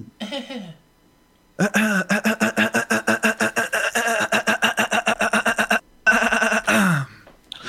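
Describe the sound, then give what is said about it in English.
A voice imitates a car engine cold starting: a brief groan, then a long run of rapid, rhythmic sputtering pulses, ending in a loud, rising revving burst. “Are we starting a car in your room?”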